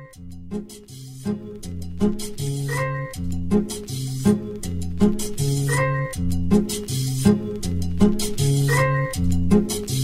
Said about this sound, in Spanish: Vamos ah. a un segundo corte musical. Ahora escuchemos … con ….